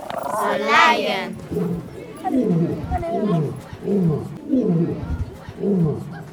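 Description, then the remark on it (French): A big cat lets out a deep, drawn-out roar, followed by a rhythmic series of heavy grunting roars spaced evenly apart, loud, with people's voices around it, at the feeding time of big cats including tigers, panthers and cheetahs, which leap over a glass bubble to eat. “Puis nous avons couru voir le goûter des félins. Les tigres, les panthères, les guépards, ainsi que le roi,”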